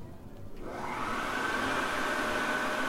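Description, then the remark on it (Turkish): An electric hand dryer in a women's restroom starts up to dry wet hands and blows steadily with a loud, continuous whooshing roar and a faint whine, with no talking. “Kurutma aletinin sesi boyunca bir sürü saçma sapan şey geldi aklıma.”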